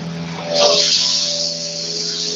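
Steady, loud interior noise from a rally car: a droning engine hum with a rush of road and wind noise that swells after a moment and stays constant throughout.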